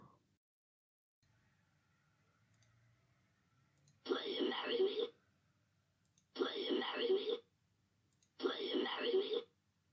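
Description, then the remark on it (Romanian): A synthesized, monkey-like voice says "Will you marry me?", made to imitate how a monkey would sound if it could speak. The phrase plays three times in a row with brief pauses between. Each repetition is loud and clear over a quiet background. “Și hai să vedem cum s-ar auzi vocea unei asemenea maimuțe care ar vorbi.”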